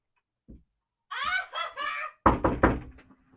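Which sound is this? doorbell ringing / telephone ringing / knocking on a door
knocking on a door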